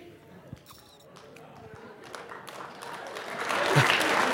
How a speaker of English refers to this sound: Is that funny? Oh, thanks for your applause.